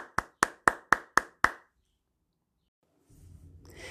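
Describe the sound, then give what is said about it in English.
Six sharp, loud hand claps in a steady, even rhythm, followed by a short silence and then a soft low rumble of background noise. “My hands say thank you with a clap, clap, clap.”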